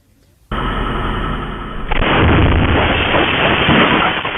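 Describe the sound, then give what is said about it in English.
After a brief quiet moment, a house explosion erupts into a loud, sustained roaring rumble that surges even heavier a second later and keeps blasting, muffled and distorted. The explosion leveled a home on the 1700 block of 22nd Avenue in the Sunset District. “the video you're about to see really shows the impact and the power of this explosion here.”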